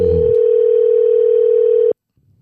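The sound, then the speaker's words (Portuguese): A steady, loud telephone tone holds on a single pitch for about two seconds, then cuts off abruptly, leaving faint low background noise. “Aqui, fala pra sua mãe atender o telefone, nós vou ligar pra ela agora.”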